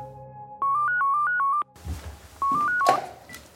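telephone dialing and ringing

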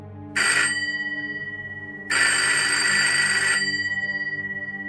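telephone bell ringing

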